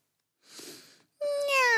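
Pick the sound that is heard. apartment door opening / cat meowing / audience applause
cat meowing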